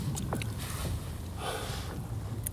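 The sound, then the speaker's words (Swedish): Lake ice sings and cracks from tension in the ice as the temperature rises from five degrees below zero overnight to five above: a sharp, descending zinging ping near the start, then fainter twangs, over a steady windy rumble outdoors. No one speaks. “Det är bara att det, det är spänningar i isen.”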